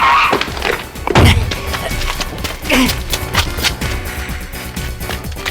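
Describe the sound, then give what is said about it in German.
Car tires squeal as a vehicle turns sharply into a parking lot entrance and brakes hard, loud, mixed with engine noise and a few sharp knocks and thumps over a busy, dense background. “lenkte so scharf, dass die Reifen quietschten. Dann stieg er voll auf die Bremsen.”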